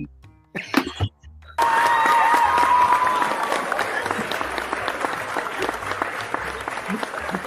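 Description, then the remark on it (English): After a couple of brief sounds, a canned studio-audience track bursts in loudly: laughter, applause and cheering with a shrill whistle, sustained steadily to the end. “No, that was a laugh track.”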